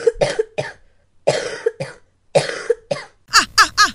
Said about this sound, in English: Ah, oh, what am I going to do with you? You have been coughing and throwing up every week.